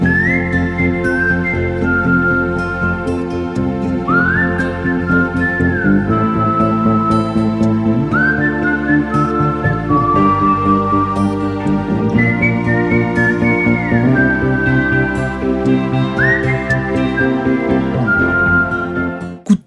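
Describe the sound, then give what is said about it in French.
A clear whistled melody from a film score carries long, gliding notes over a full instrumental accompaniment, playing continuously and prominently for the whole stretch with no voices. “J'ai trouvé cette idée de sifflet.”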